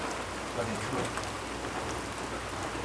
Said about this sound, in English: So I could tell you it's raining and then not believe me?